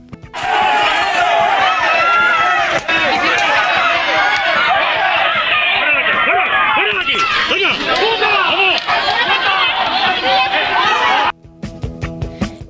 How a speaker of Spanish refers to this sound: Iba a decir una barbaridad sobre lo que parece esto que estaba sonando, pero es segunda semana y no quiero acabar en prisión. Suenan golpes y suena violencia. Y sí, son los Mossos de Escuadra, esos cuerpos de seguridad autonómicos